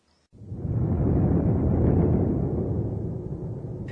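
A deep roll of thunder bursts in after a brief silence and rumbles on heavily and loudly, fading only slightly over several seconds, with no voices.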